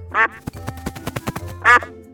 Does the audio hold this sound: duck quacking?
yes